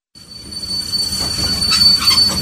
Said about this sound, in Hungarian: Reggeli személy hallottuk, hogy beállt a reggeli személy minden állomáson is megállója,